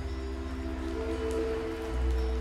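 Steady rain falls in a continuous soft patter over a low, droning hum, swelling slightly louder toward the end, with no voices present.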